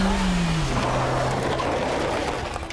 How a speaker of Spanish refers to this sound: Escuché que un coche se acercaba a nosotros. Parecía que nos iba a arrollar.